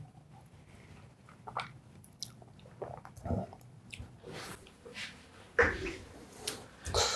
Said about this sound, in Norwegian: Ja, nå er vi jo inne på mange måter i den delen av podkasten som er mest spennende, der vi bare sitter her og smatter og du hører at vi liksom drar litt luft inn gjennom nesen i lengre perioder.